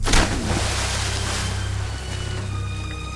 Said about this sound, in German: Jetzt verzog sich die Baronin aber erstmal, und zwar reichlich überhastet. Sie galoppierte durch das kaputte Fenster Richtung Burggraben und stürzte sich samt Pferd in das brackige Wasser des Grabens.